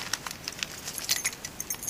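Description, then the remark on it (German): Bicycle keys jangle and clink in a quick, irregular run of bright metallic jingles, moderately loud, as they are passed from hand to hand with no voices. “Gib mir den Schlüssel.”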